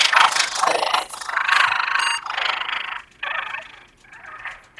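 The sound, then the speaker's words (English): A voice imitates a rattling noise: a string of raspy, breathy bursts with brief gaps between them, loud and hissy, lasting several seconds with no words spoken. “kind of rattling noise.”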